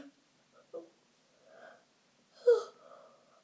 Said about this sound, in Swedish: här gäspningarna får jag inte klippa bort.